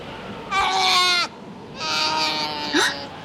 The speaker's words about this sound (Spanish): ¿Quién llora? ¿De dónde viene ese llanto? Miren, es un osito. Está flotando en un pedazo de hielo y viene hacia nosotros. ¡Ay! ¡Es un oso polar cachorro! Debe estar perdido.